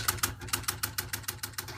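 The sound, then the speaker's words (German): A teleprinter at a weather service clatters away, receiving encoded weather data onto endless paper strips, in a fast, steady rhythm of sharp mechanical strikes, moderately loud, with a low machine hum running underneath and no voices. “Technisch wird die erste Zeit vor allem von Fernschreibern geprägt.”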